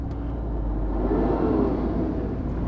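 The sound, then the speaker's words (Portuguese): A car engine rumbles close by with a deep, steady low-end drone, swelling slightly in the middle as if revving gently, with no voices present. “Tem um Subaru metido a, a carro de corrida aqui na frente.”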